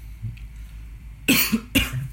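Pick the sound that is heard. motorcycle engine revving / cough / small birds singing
cough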